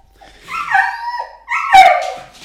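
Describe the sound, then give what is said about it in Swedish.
A dachshund whimpers in two long, high, whining cries, the second broken by a sharp yip, with no talking. “Det är en drax. Ja, så det, det låter drax.”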